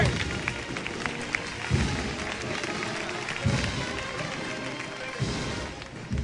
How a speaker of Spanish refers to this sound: Y se va flamenco para Huerva Buscando el aplauso de los vecinos del Huerto Puerto.